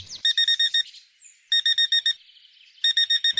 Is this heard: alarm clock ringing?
yes